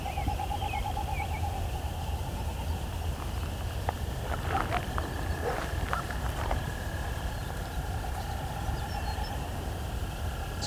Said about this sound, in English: I've got a distant great horned owl.